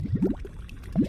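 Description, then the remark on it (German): Thick grey-brown mud of small mud volcanoes gurgles and bubbles, with a few wet, blobby pops in quick succession, a pause, then another bubbling burst; no voices. Hot gases rise from deep in the earth; near the Salton Sea in the Imperial Valley, California, close to the Mexican border. “Die graubraune Schlammmasse gluckert vor sich hin, zischt Dutzende dieser kleinen, teilweise gerade mal mannshohen Schlammvulkane gibt es rund um den Salton Sea im Imperial Valley in Kalifornien, nahe an der Grenze zu Mexiko.”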